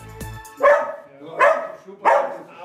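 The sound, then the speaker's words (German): A dog barks three times at a steady pace, each bark loud, with a short gap between them and a faint click at the start, as it comes out to greet visitors at an old farmhouse near Linz in green, hilly countryside. “Heinrich Bergmüller begrüßt uns und gleich kommt uns sein Hund entgegen.”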